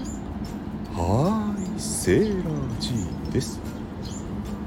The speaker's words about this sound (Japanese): なんか鳥の鳴き声さえずりとか騒音とか一緒に聞こえるけどどこにいんのよくぞ聞いてくれました今私は本郷給水場の屋上にいます何それ実はですねここ半地下水槽の上に設置された屋上庭園なんですよ